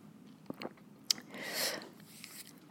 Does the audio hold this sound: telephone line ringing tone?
no